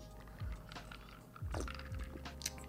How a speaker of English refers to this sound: Um, if you're wondering what I am sipping on, again, shout out to Wizards Beast.